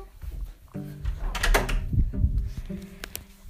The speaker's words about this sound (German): Ja, hier bin ich wieder. Ich muss doch schnell Türe zumachen.